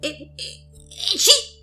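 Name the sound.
voice imitating a sneeze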